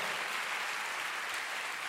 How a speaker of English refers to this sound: Can you give the Lord a big clap? Hallelujah. Oh, come on, let's give the Lord a big hand. Oh, you want to clap? Let's give the Lord a big clap tonight. Hallelujah.